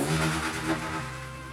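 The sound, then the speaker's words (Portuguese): A motorcycle revs loudly as it passes along the street, its engine rising in a brief surge and then settling into a steady, lower drone as it moves off. “Um imbecil indo com uma moto rua. fez de propósito isso.”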